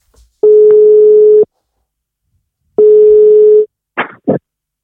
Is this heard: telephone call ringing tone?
yes